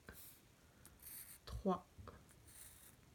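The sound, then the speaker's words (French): Pen strokes scratch across a sheet of paper in short, separate bursts as someone marks off each of seven clouds on the sheet while counting them, quiet, with a brief louder tap or thump around the middle and faint background hiss. “Une troisième solution, c'est donc tracer l'objet que l'on compte.”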